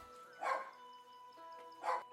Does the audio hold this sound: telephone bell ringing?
no